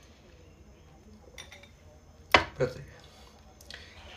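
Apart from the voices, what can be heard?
sipping tea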